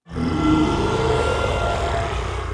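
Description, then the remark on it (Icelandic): A dinosaur roar sound effect: a deep, gravelly bellow that bursts in loudly and holds steady for over two seconds with a rumbling low end, no voices over it. “Ég geti fengið eitt reysaeðlu öskur takk.”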